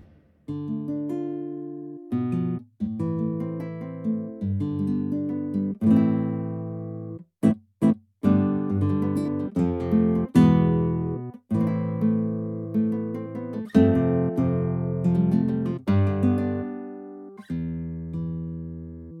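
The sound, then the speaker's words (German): An electric guitar, with its reverb turned off, plays a dry, clean passage of strummed chords and picked notes, each attack ringing briefly before the next, with a few quick staccato hits near the middle and no voices. “Und dann kann man schön Gitarre spielen.”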